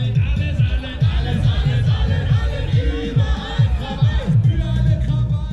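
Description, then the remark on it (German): A large crowd of expropriation activists chants the slogan "Überall Krawall" in unison while marching peacefully through the streets of Kreuzberg, Berlin, during an election campaign, voices rising and falling in a steady repeated rhythm, loud with a dense roar of people behind. “Überall Krawall lautet unüberhörbar der Slogan der Enteignungsaktivisten in der heißen Phase des Wahlkampfs in Berlin.”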